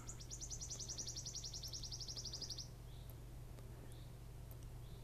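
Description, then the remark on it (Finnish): A wood warbler sings one clear, high trill, a rapid run of sharp notes quickening into a shivering flourish and ending abruptly, over a steady low background hum. “Viikon luontoääni: Sirittäjä”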